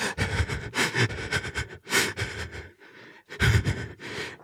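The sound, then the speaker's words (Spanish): A voice imitates heavy, panicked breathing, with rapid ragged gasps and wet sniffling in an uneven rhythm, pausing briefly before another burst of shaky inhales. “La respiración de Blair Witch, nada más”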